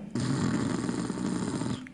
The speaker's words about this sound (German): Atme wieder schnarchend ein